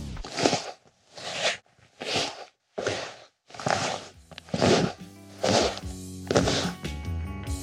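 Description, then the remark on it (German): Leather creaking on an old, worn-in leather couch with creases in the leather and on a leather stool, recorded with a Rode NTG 4 microphone: about eight squeaky, rubbing bursts in an uneven rhythm, the later ones carrying a low groaning tone, fairly loud with no talking. “Die ausgesessene Ledercouch war schon alt und hatte einige Falten im Leder.”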